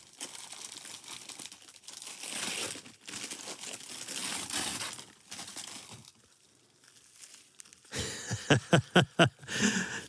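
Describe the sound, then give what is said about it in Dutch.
Wrapping paper on a gift holding two Ajax glasses is crinkled and torn open in long rustling bursts, pausing briefly, then a quick series of sharp crackling rips near the end. No one speaks. “Eh, ik mag het uitpakken. Je mag het uitpakken, ja.”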